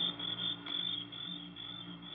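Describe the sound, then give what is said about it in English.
A dense chorus of crickets shrills without pause, a steady high-pitched trill filling the whole stretch, with a faint low hum underneath and no voices. “But there wasn't a sound except the crickets, shrilling so loudly the noise seemed to beat inside my brain.”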